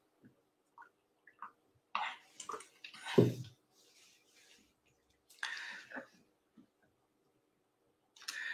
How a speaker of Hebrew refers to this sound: אה, ברשותכם, אני אשתה מים קצת.